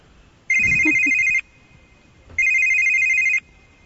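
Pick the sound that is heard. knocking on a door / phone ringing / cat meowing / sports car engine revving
phone ringing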